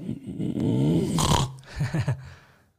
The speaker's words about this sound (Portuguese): Se eu respiro só pelo nariz com a com a glote aberta. Né? Agora, com a garganta, com a mangueirinha fechada, ela faz um barulhinho. É quase um ronco.